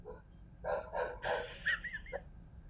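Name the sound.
dog barking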